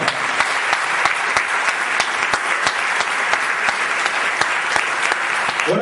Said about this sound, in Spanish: Un aplauso fuerte, fuerte.